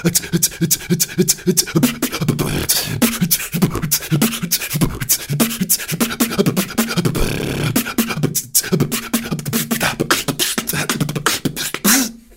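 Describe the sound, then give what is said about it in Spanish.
A fast, steady beatbox groove of sharp clicks, puffs and breathy inhales and exhales used as sounds, mixed with low hummed tones, loud, running continuously with a brief pause near the end. “Y luego ya de ahí puedes empezar a pillar un poco lo que es el tema de la respiración como un sonido más, ¿no?”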